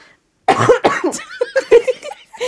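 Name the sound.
cough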